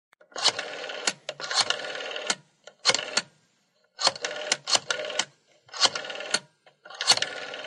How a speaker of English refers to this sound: I'll make a phone call and dial it myself.